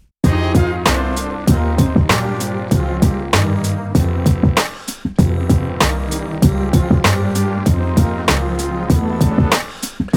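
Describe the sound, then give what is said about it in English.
A drum kit is played live in a small drum room: a steady, hard-hitting beat with crashing cymbals, while the drummer hums a tune faintly underneath throughout. “So this is me actually playing. I think you can actually hear me humming though, so that's actually playing on a kit.”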